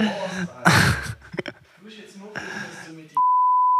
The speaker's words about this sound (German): Es gibt einiges zu piepsen.